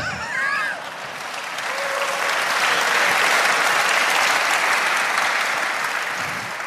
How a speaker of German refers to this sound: ist das falsche Applaus? Wer, was, wofür jetzt eigentlich der Applaus hier?